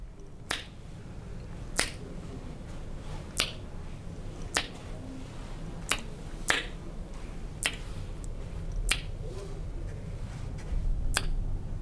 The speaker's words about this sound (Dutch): klikkend naar de deur toe en door het geluid wat terugkaatst hoort ze wanneer ze bijna bij de deur is.